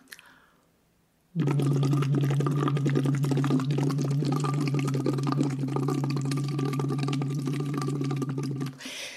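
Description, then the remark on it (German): Steady, loud bubbling as air is blown into a water bottle through a tube about one centimetre in diameter, laid on the tongue tip with lips loosely closed around it: a continuous gurgling burble with a low humming tone underneath, starting abruptly and running for about seven seconds before stopping. “Den stecken Sie rein in Ihre Flasche, legen den Schlauch auf die Zungenspitze und schließen locker dann die Lippen drumrum und dann lassen Sie einfach reinströmen.”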